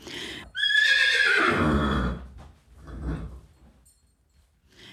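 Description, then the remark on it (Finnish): A single loud horse whinny with a high, quavering start that drops into a lower, rattling snort, followed by a softer breathy exhale, with no other sounds around it. “Ja hevosethan oli ainut karjaeläin, jonka talli sijaitsi usein niin sanotussa miespihassa eikä karjapihassa.”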